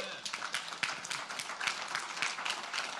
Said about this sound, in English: Come on, I think we ought to give the Lord a hand clap of praise for that.